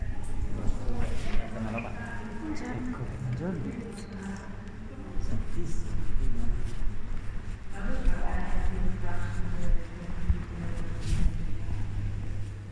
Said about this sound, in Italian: Alcuni riguardano il lavoro, qui si sente il suo arrivo, nell'ospedale.